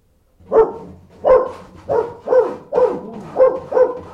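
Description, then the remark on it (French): A dog barks six times in a steady, evenly spaced series, each bark loud and somewhat hoarse, with no voices or other sounds in between. “Mon bon chien, te voici revenu.”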